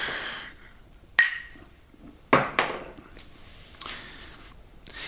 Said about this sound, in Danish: Skal vi lige se skål? skål.